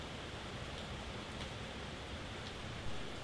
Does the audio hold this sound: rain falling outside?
yes